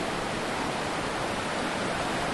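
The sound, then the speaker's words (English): Steady, even rush of river water flowing, a dense continuous hiss with no breaks or changes in level, moderately loud, with no voices. “So we're getting up again, we're walking over to the river”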